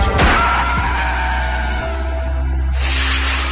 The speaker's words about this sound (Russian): Нам нужно двигаться вперед, говорит Зеленский, но его речь перерывает грузовик.